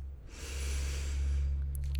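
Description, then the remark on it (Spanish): A long, deep inhale drawn in steadily through the nose as part of a breathing exercise, fairly loud, rising from about a quarter second and held for over a second before fading, with a faint low hum underneath. “inhalar, mantener un poco la respiración y luego exhalar.”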